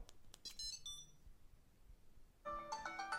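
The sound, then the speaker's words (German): A few quick electronic chirps, then a smartphone ringtone starts up, a bright melodic phrase of tones playing steadily, with no one talking. The ringing is set off remotely by pressing a button twice on a small device connected to the smartphone, used to find the phone. “Und da das Teil mit meinem Smartphone verbunden ist, kann es dann eben sofort das Klingeln aktivieren.”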